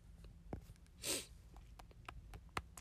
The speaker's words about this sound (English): Sorry if I'm getting the sniffles. And for the reminder, sniffles is not um, an indication or a symptom of COVID 19.